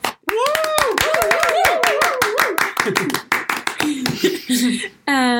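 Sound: applause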